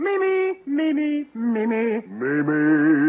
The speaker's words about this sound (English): All right, now just listen to this. First, I want to warm up my four voices.